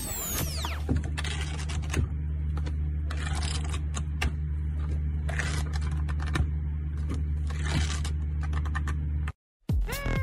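A deck of playing cards is shuffled: rapid, irregular bursts of papery clicking and flicking run over a steady low hum, with a brief rising whoosh at the start and a short silent gap near the end.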